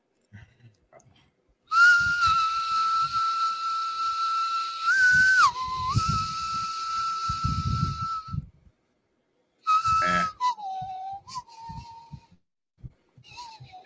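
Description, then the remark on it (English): A person whistles a TV theme melody, holding long, steady notes that swoop down in pitch, with soft rhythmic low thumps underneath; after a brief pause the whistling resumes. “Please tell me you're about the hum- you're about the fucking whistle the Doctor Who theme.”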